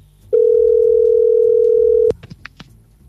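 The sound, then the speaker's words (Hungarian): A steady, loud telephone dial tone holds one mid-low pitch for about two seconds, then cuts off abruptly into a few quick clicks and short blips as technicians redial a dropped call. “És hát elég kritikus a helyzet, mert hogy uh, a technikus kollégák megpróbálják újra. Igen. Hívni.”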